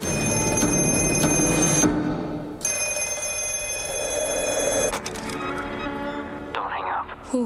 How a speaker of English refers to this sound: Then a mysterious black phone starts to ring.